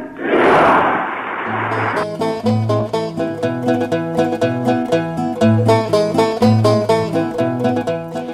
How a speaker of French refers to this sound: Ensuite, ceux qui sortent du Palais d'Orient cherchent à regagner les abords des Cortés où il y a quelques instants Juan Carlos Ier vient d'être proclamé roi d'Espagne, après le dernier adieu à Franco, c'est les viva au nouveau roi.